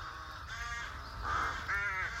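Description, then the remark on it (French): Rooks caw in a nesting colony in the tallest trees of the village of Noyers-sur-Serein, Yonne, France, in April, squabbling to defend their nests: three harsh, raspy calls in quick succession, the last two louder, over a low background rumble. “Les clans croassent, jacassent et se disputent en permanence pour défendre leur logis”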